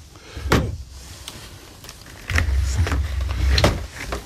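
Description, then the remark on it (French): A sharp click, then a small electric fan whirs to life with a low, steady motor hum that keeps running, broken by a couple of brief clicks or knocks. No one speaks. “C'est un petit ventilateur pour.”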